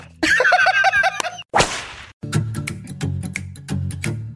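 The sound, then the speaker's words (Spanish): A whip swishes through the air and then cracks sharply again and again in a quick, steady rhythm, loud, preceded by a short burst of wavering, squeaky tones. “¡Sas, culebra al piso y... tras, tras, tras!”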